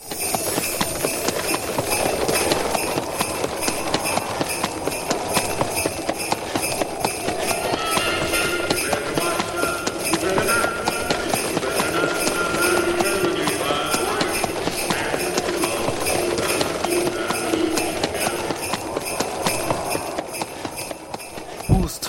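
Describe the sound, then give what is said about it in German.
A horse-drawn winter sleigh ride: a steady, rhythmic clip-clop of hooves runs throughout at an even volume, with faint tinkling bells and a bright, rushing noise layered over it. No one speaks. “Besteigen wir doch einfach einen Winterschlitten und lassen uns zu Ayosha, Ahmed, Rosa und am Anfang zu Emanuel mitnehmen”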